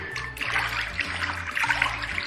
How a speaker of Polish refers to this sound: Trochę wam pomerdam tą wodą, będzie efekt dźwiękowy. Pływam sobie w wannie